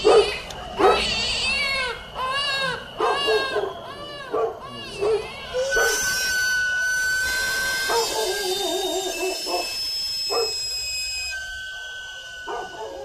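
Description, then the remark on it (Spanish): At night, a dog yips and barks in quick bursts while a baby cries, followed by a steady high whistling tone from a sweet potato vendor's whistle as the barking continues more sparsely. “Nos asusta y despierta al bebé y al perro.”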